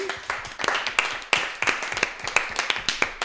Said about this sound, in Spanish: Y otro aplauso para Ellen.